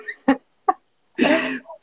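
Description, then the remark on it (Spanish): A small candle is blown out with one breathy puff lasting about half a second, after two brief taps or clicks in an otherwise quiet moment. “Ay, bueno, apago la velita que le dice...”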